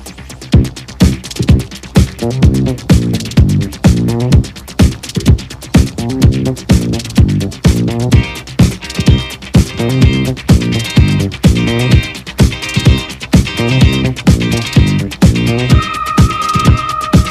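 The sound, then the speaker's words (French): A 1977 space disco instrumental: a steady four-on-the-floor groove with a pulsing synth bass and bright electronic synth lines layered on top. From around eight seconds a shimmering high synth melody joins. No voices. “comme on dit, euh, c'est Space Disco.”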